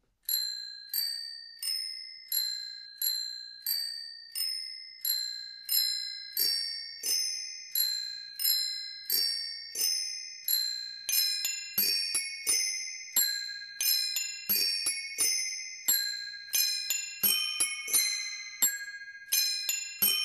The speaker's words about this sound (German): ein paar Stücke hat unser doremikro Fahrradklingelorchester noch drauf